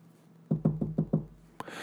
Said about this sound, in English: And then, you know, uh, someone knocks on the door. Sound effect.